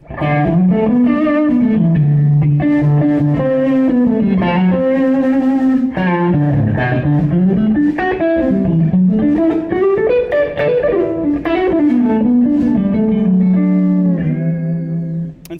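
An electric guitar played through an overdrive pedal, the next drive in a pedal chain, carries a sustained, singing melody, with notes gliding and bending. The gritty tone stays loud for the whole stretch, with no voices.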